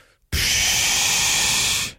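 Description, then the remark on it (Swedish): A voice imitates a man's sleep breathing, in through the nose and out through the mouth: a single loud, forceful breathy exhale like a blue whale spouting through its blowhole. The airy, hissing whoosh starts abruptly and holds steady for over a second before cutting off. “Min man låter som en blåvals blåshål när han sover. Han andas in genom näsan och ut genom munnen.”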